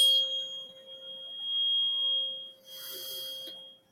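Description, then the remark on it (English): A steady 432-hertz pure tone hums continuously for the whole four seconds at moderate volume, with a couple of brief hissy noise bursts over it and no one speaking. “This was 432 hertz.”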